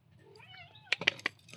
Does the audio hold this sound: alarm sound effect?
no